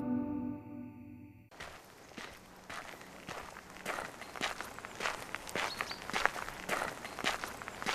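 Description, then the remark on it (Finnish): Steady footsteps crunch along an outdoor path at a walking pace, fairly loud, with a faint rustle between steps; a short tonal hum precedes them, and nobody speaks. People are walking calmly in nature in sunshine at Seurasaari. “Tämä, mitä me täällä tehdään, eli kävellään luonnossa auringonpaisteessa, niin tämähän on mitä parasta myös kivunhoitoa.”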